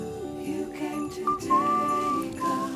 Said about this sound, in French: Ah oui, siffler quand on commence une émission, toujours un plaisir.